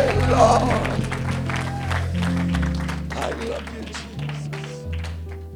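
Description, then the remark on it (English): An audience claps in a steady, loud rhythm of sharp bursts over sustained low musical tones that shift pitch, with voices mixed in beneath the clapping. “Are you going to clap different from this night forward?”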